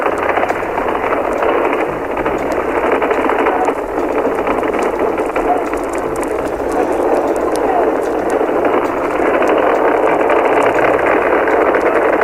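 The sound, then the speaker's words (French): A rocket engine roars at launch from Cape Kennedy, its flame spreading over nearly 300 metres, the rocket bound for the Moon: a loud, steady, unbroken rumble that holds at the same intensity throughout, with a thin, muffled, broadcast-like tone and no clear talk over it. “La fusée est déjà. Vous commencez à entendre le bruit.”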